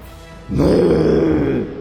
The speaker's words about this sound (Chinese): 一声巨大的吼叫声从雷云之上传来，对着声音颇为熟悉的洛尘眉头微皱。